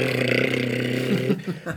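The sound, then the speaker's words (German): A voice imitates a wind-up plastic Fisher-Price toy chainsaw with a sustained, buzzing, rattling drone for over a second, then breaks into a few short sputtering bursts. “Oder hatte, ich glaube, vom Fisher Price eine Kettensäge, da hat er aufgezogen, also so, und wenn er dann gerückt hat,”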